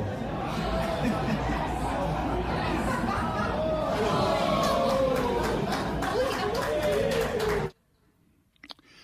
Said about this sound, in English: So that is the uh, the media clapping, cheering, and giving you the oh as the streaker was taken out by security.